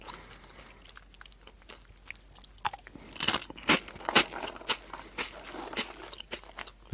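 Pote Long crunchy potato snack sticks being chewed, a run of sharp, irregular crisp crunches that start faint and grow louder and denser midway, with no talking.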